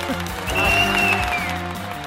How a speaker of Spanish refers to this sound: Los aplauso para los odiadores. Aplauso. ¡Bravo!